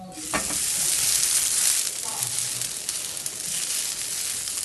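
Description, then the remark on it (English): Natural-casing hot dogs from an American Coney Island kit sizzle steadily in a grill pan as the casings crisp, a dense, bright crackling hiss with small pops that runs continuously at a fairly loud, even level throughout. “I started with the onions, then I fired up a grill pan to get the natural casing nice and crispy.”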